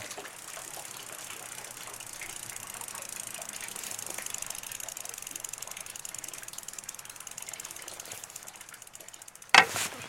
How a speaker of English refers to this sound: Yes, this is my this is my bike. I go down to the, the, the village with this when I go to the market. Yeah, it's it's French. Motobécane. I like the sound of the wheel going round.